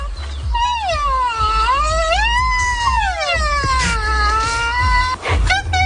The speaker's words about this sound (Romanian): Deci sunt pui de rinocer, ceva mai drăguț și mai caragios și mai bizar nu există. Și sunt cu îngrijitorii și îngrijitorii scarpină pe sub bărbie și ăștia pui fac așa.